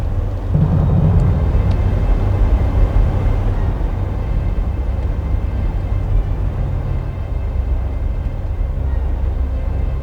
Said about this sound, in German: bog auf einen Sandweg hinter der Pension ab und parkte dort.